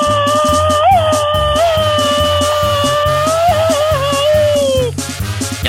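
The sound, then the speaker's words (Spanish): A loud, high-pitched Mexican grito yell, a rapid-fire so-called machine-gun grito, held long and wavering, rides over a steady, bouncy musical accompaniment before breaking off near the end. “no te podemos decir como Pedrito Fernández, ya está escuchándose más sazón tu grito ametralladora.”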